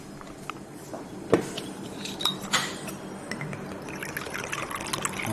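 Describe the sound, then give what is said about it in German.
Königin der Hanse gin is poured steadily over very large ice cubes in a large goblet-shaped glass on a hot day, a continuous splashing trickle punctuated by a few sharp clinks and cracks of the ice as the gin is chilled. “Genau, du gießt das über die Eiswürfel.”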